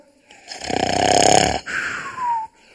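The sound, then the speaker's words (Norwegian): A person imitates a lion snoring: one loud, rattling, guttural rumble, followed by a softer breathy exhale that trails off into a falling whistle. “Er det noen av dere som har hørt en løve snorke?”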